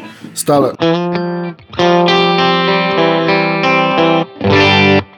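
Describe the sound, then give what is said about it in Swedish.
Overdriven electric guitar plays a quick pickup note, then several loud, sustained distorted chords separated by brief gaps, played at the player's usual rehearsal volume, with the tone shifting slightly between them as he switches through different pickup positions. “Ska vi lyssna på lite olika micklägen kanske?”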